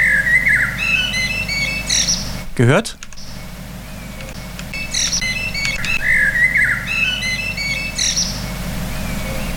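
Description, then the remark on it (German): A blackbird sings a clear, melodic phrase of fluting notes, repeating it a few seconds later over a steady low rumble, with a brief spoken word in between. “Ähm, und da ja Frühling ist, passend zu dieser Jahreszeit jetzt für den Frühlingsanfang morgen mal etwas sehr Kurioses, was eine Amsel fabriziert hat. Jetzt hört mal hin, die Tonfolge, wie die Amsel macht.”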